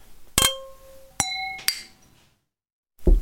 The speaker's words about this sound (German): Und ich finde, wir könnten erstmal darauf kurz anstoßen. Cheers! Definitiv. Prost!